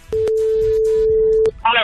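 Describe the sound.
A steady electronic phone ringback tone of an outgoing call sounds once for over a second, with a couple of clicks on the line, then a voice begins speaking as it cuts off. The call is presented as coming from the legal department of Instagram Spain about a fine for handling a phone.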